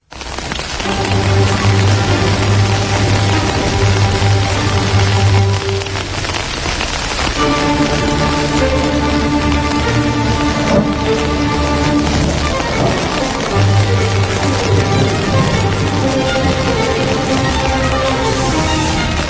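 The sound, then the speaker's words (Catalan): Heavy rain pours down in a loud, continuous rush, with steady tonal drones layered over the downpour throughout and no voices. “comença a ploure a bots i barrals aquí a Territori 17”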